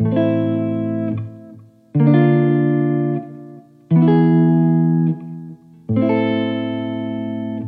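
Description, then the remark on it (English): A piano chord of D, F and B flat is struck four times, each one ringing out loud and full for about two seconds before slowly fading into the next, with no talking. “So before you had the notes D, F, A, now you have the notes D, F, B flat.”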